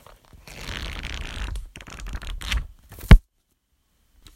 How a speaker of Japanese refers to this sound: そして本をめくる音とか